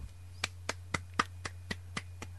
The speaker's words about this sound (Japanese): もうもう拍手が鳴りやまないよ